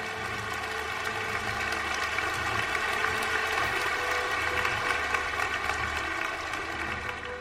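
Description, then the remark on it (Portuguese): Steady applause, a dense wash of clapping at an even level for several seconds, with a faint tonal hum running underneath and no voices. “Palmas para vocês, vocês que fazem esse projeto acontecer.”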